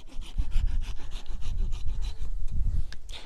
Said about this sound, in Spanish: Miren qué rapidísimo cortó el árbol. Ya está abajo, ya. ¡Pum! Ahí está.